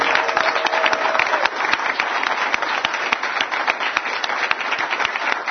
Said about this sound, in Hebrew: גם להם מגיע מחיאות כפיים.